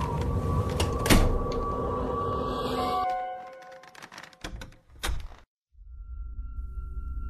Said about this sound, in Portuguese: Estendi a mão para a maçaneta e lentamente deslizei a minha chave e girei. A porta se abriu e fui sugada como um vácuo, a porta batendo rangendo.